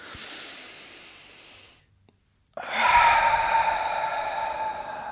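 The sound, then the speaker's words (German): A person sitting in a comfortable posture for meditation takes an audible deep breath: a breathy inhale lasting under two seconds, a brief pause, then a stronger, louder exhale sighing out for over two seconds. No talking. “Und jetzt atmen wir einfach einmal tief ein und aus.”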